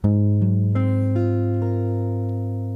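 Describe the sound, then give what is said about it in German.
A sustained keyboard chord builds up note by note, with about five tones entering in quick succession and ringing together steadily without decay, played alone with no talking. It is an A-flat seventh-ninth chord, formed by putting an A-flat root under a minor sixth chord. “dann ist es ein Ass7-13 Akkord oder Ass7-9 besser gesagt.”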